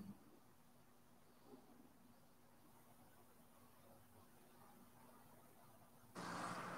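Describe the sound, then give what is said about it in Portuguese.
Refueling a car at a gas pump: a steady low mechanical hum runs for several seconds, then a sudden loud, broad rushing hiss starts near the end. No one speaks. “Desculpa aí que eu estou colocando combustível do carro, cara.”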